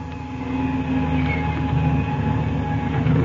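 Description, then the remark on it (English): A propeller airplane engine being started roars with a steady, loud, low droning rumble and a constant hum layered over it, growing slightly louder toward the end, with no voices. “I've got to start this engine first.”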